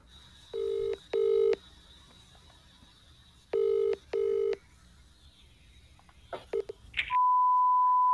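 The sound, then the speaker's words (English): Four clear touch-tone dialing beeps sound in two quick pairs as a phone call to a company is dialed, followed by a few clicks and then a steady electronic line tone as the call connects; no one speaks. “We are making our first call.”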